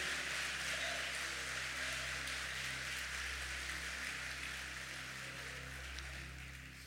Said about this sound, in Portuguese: Se você crê nisso, por favor, aplaude a Jesus o mais forte que você puder.